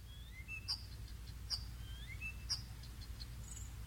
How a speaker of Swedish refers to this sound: Jag tror att det är en härmsångare jag hör, men om jag förstår rätt så är den ganska sällsynt här i Österbotten.